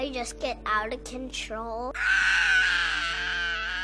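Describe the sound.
A child's voice gives a few short whiny vocal bursts, then breaks into a loud, sustained, harsh, strained scream of anger that lasts nearly two seconds, showing how the child screams when angry.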